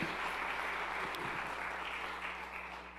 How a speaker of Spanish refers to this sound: Vamos, del otro aplauso fuerte.